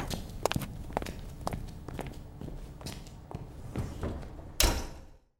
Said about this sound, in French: Dans un soupir, elle attendit que ses assistants terminent le travail, puis ressortit à leur suite en fermant la porte derrière elle.